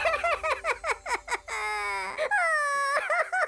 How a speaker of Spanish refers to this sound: En sus sueños, los dos tuvieron un dolor terrible al sentir que alguien lastimaba a su hermanito, así que se despertaron llorando.